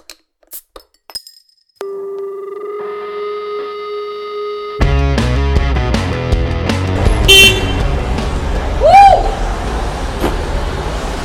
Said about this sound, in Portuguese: Sabe o que me irrita? Gente que grita no bar. Gente que grita no bar e buzina. Por quê, né? Buzina me irrita.